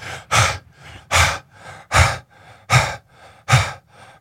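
Rapid, forceful rhythmic breathing, about six sharp huffing breaths in steady succession, the yoga breath of fire, with no talking.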